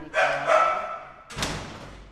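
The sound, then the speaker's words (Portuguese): A female dog, Nina, lets out two quick, loud barks as a sign of a stranger, then a heavy thud or knock follows with some lingering background noise. “A cadela Nina dá sinal de pessoa estranha, mas deixa entrar na sala”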